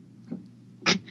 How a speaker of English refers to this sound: my chihuahua here has been doing this cough thing for fucking two weeks